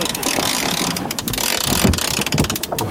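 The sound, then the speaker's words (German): A sailboat sheet is hauled tight through a ratchet block during a tack, giving a fast, rough clicking run that lasts nearly three seconds, loud, over wind buffeting the microphone. “dann lässt du die Schot los. Alles klar. Also quasi eine Leine für Segel. Und ich hole die auf dieser Seite dicht.”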